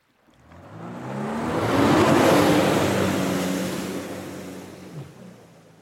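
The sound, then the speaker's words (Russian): Two rented motor scooters rev and drone in Picton, on Queen Charlotte Sound; the engines approach, grow loud, and pass by, their whiny pitch rising then falling before fading away, with no talking. “Предлагаю взять в аренду два скутера и с ветерком добраться до нужного места.”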